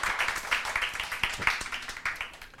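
A crowd applauds during a sermon, giving applause to Jesus, with a dense, steady patter of many hands clapping at once, moderately loud and bright, carrying on for a few seconds with no voices over it.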